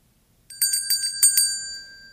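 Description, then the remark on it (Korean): A bright correct-answer chime marking a correct answer in an English pronunciation lesson rings out alone: a quick run of four clear bell-like dings that overlap and sustain, then fade away gently with no voices present. “해보시죠. caffeine can keep you awake. 딩동댕.”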